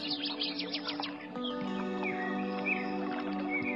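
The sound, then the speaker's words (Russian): Quick, bright bird chirps and trills flutter at the start, then settle into a steadier wash of background sound with occasional calls and a babbling stream, moderately loud, no voices; in a warm, humid wood of old trees at midday. “Мои уши наполняются птичьими трелями и журчанием воды.”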